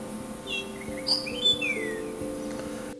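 A grayish saltator sings a short series of clear, sliding whistled phrases over a steady low background hum, with no talking.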